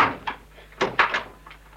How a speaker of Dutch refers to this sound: Binnen in de woning sloeg een deur. Een tweede deur en toen naderden snelle, trippelende voetstappen. De voordeur werd opengedaan.